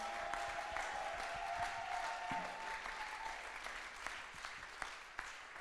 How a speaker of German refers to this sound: Lasst uns Leon nochmal einen heftigen Applaus geben.